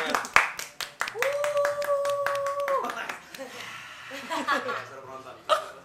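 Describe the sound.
Hands clap in a quick, uneven run of sharp, crisp slaps that continue for several seconds. Voices cheer alongside the clapping, including one long, steady held note partway through.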